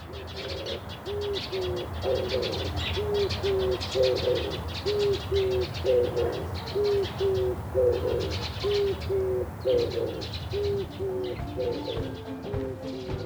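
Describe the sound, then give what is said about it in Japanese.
An oriental turtle dove in Matsumoto coos in a steady, repeating series of low, hoarse phrases over a hum of outdoor background noise with faint higher chirps. “はい、えー、松本市在住の木地バトさんご本人のお声をいただきましたさあ皆さん鳴き声ねどんな風に聞こえましたでしょうかあの「おわああお」じゃないですかねこれ違いますかね”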